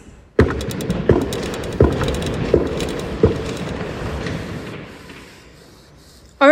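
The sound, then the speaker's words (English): Heavy feet stomp on a floor to express rage and grief, in a loose, uneven rhythm, about six thudding low impacts over a few seconds, each followed by a lingering rumble before the stomping fades out. “I invite you, if you feel so moved, to stomp your feet with me in all those feelings.”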